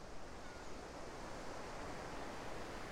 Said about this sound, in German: Die Wellen kommen ein. Sie gehen wieder mit einem aus.